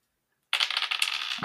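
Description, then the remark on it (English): Dice rolled for an investigate-a-mystery check clatter and rattle across a hard desk surface, a bright burst of rapid clicking that starts abruptly after a short silence and tumbles on for about a second. “Ah, goddamn dice.”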